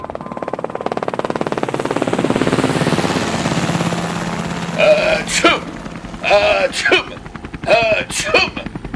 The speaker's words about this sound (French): Qu'est-ce qui vous prend, Watson Eh bien, je fais comme vous avez dit. Je tousse dans l'hélico.